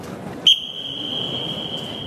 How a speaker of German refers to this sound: Er pfeift und das Echo zeigt die besondere Akustik im letzten großen Raum vor dem Ausgang.